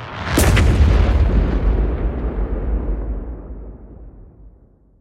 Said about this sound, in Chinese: 爆破声非常的靠近，仿佛就在我们的隔壁船。我跟阿宝都趴着，不敢起身看，只能从船舱墙壁的壁面看到橘红色火光的反射。伴随着人们的尖叫呼喊，爆炸声的频率越来越密集。覆盖了一切的声响。